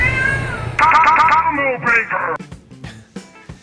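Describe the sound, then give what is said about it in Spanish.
A Siamese cat lets out a loud, drawn-out meow, its pitch wavering and wailing for about two seconds before breaking off, followed by faint scattered clicks and taps. “Es un siamés y maulla mucho. El gato maulla toda la noche, no dormimos.”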